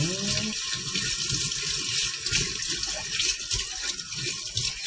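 Steady running tap water splashes into a sink with small clinks and rattles of dishes being washed, continuous throughout, with no voices.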